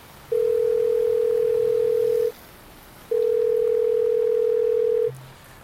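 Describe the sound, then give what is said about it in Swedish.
A telephone ringback tone from an outgoing call: two long, steady, clear beeps of about two seconds each, separated by a brief pause, fairly loud with no one talking. “Jag ringer till Jordi igen.”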